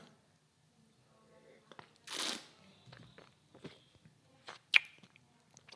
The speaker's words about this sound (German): ich hoffe, das Schmatzen stört euch nicht. Ähm, wenn es euch stört, dann schreibt mir noch eine E-Mail an.